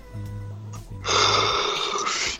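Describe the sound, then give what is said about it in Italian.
A single yawn: a low, drawn-out voiced groan that swells into a long, breathy exhale lasting about two seconds, heard alone without any talking. “Ma chi è che sta sbadigliando una continuazione?”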